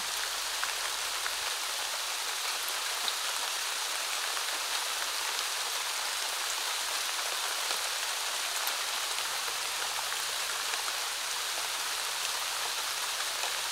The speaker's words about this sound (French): et cette pluie De quoi est-elle la source de vie Quelle graine en toi s'en nourrit